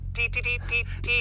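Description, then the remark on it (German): A high, buzzy radio tone keys on and off in five quick bursts of uneven length, like Morse code, over a steady low hum. “Gleichbleibender Ton, aber ständig unterbrochen.”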